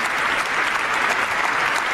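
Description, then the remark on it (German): Steady, dense applause from members of the German parliament in Berlin, giving a standing ovation, a continuous crackle of many hands clapping at even loudness with no voices standing out. “Hier wird jetzt auch geklatscht übrigens schon mal, ja, äh, nur mal merken.”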